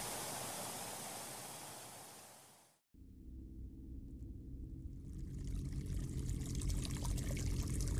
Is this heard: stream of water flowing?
yes